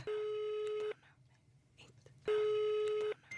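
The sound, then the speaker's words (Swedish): Two long electronic ringback tones on a phone line as a call is placed to a former boss, each lasting close to a second with a pause between, steady and fairly loud over a faint background hum. “Så jag eh, tänkte att eh, du skulle få ringa Marianne, mm.”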